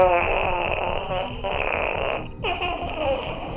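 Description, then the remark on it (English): A long, buzzy mouth-made fart noise, a voice imitating flatulence, drones for several seconds with wavering pitch and one brief break. It sounds tinny because it comes over a phone call, and the caller then hangs up. “Did you really just moth fart and hang up on me?”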